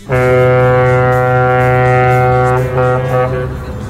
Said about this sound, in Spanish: Ahí está, es la bocina del barco ochentero